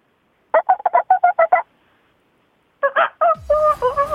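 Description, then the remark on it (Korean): A person imitates a chicken with a quick run of about eight clucks, then after a short pause another voice answers with a few clucks and a drawn-out crowing call, as two people greet each other with chicken sounds. Fairly loud. “마지막으로 서로 닭소리로 인사하세요.”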